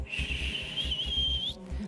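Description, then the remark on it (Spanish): A kettle whistles as its water gets hot, with a steady, shrill high tone that creeps slightly upward in pitch for about a second and a half, then cuts off, over a low bubbling rumble. “El tereré es cuando tú escuchas el sonido que hace la tetera, ese...”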